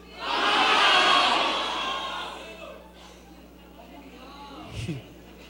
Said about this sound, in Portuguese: Cada igreja local tem um nome, então você vai gritar o nome da sua igreja local, tá bom? No 3 você vai gritar o nome da sua igreja local aí. 1, 2, 3.